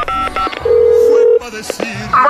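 telephone number being dialed

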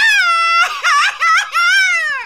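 man crying and wailing

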